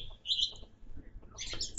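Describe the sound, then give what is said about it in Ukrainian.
Birds chirp in short bursts of high, bright tweets after four in the afternoon at a country dacha under a sunny, clear sky, with a quieter gap between calls and a soft background rumble. The calls sound fairly clear. “А зараз, бачиш, по четвертій годині дня і чуєш, як цвірінькають.”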